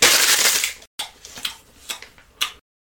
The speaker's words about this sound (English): Carefully, I tear off the bottom. I chew it.